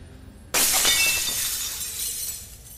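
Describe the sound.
A voice imitates glass shattering: one sudden, loud crash after a brief quiet moment, followed by bright tinkling shards that scatter and fade over the next two seconds. No words.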